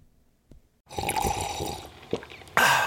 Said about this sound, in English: That's not just the sound of that first sip of Morning Joe.